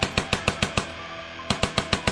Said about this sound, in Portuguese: E os disparos são na sua direção.